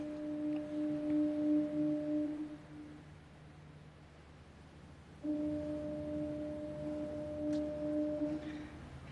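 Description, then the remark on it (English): Two long, low foghorn warning blasts sound a few seconds apart amid shifting fog, each a steady droning tone over a dull rumble of ambient background noise, with no voices present. “And sometimes, like in this video, you could barely see forever peeking out of the shifting fog, accompanied only by the rhythmic warning sounds of fog horns.”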